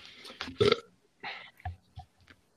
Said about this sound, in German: Hört auf zu rülpsen und mit diesen Metallgeräuschen.